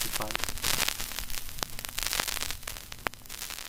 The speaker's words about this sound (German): Ja, und an dieser Stelle brach die Verbindung zum Satellaview leider zusammen. Wir hätten da doch gerne mehr gehört.